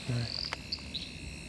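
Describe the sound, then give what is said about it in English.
Wallum sedge frogs (Litoria fallax) calling in short, high, chirping notes, a few scattered bursts over a steady hiss of insects and night ambience, soft, with no talking. “Yeah, I think probably some of those Wallam sedge frogs out there, Litoria fallax at the moment.”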